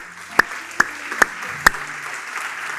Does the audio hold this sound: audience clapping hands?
yes